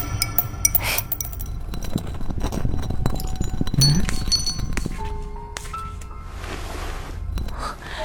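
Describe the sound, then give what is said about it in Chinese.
Glass marbles, one of them blue, clink against each other in a series of bright, sharp taps at an irregular rhythm, with a soft rustling background and a brief murmured voice. “这个玻璃珠是蓝色的，像小花的眼睛，我不喜欢。”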